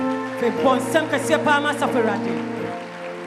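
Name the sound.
audience clapping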